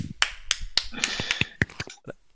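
A short burst of applause from a small group, with scattered, uneven hand claps that fade out after a couple of seconds. The claps are sharp and fairly close, with no voices.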